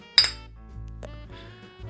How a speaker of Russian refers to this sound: И ты поднимаешь этот бокал шампанского? Да, давай все-таки а, выпьем с тобой, чокнемся немножечко. Опа.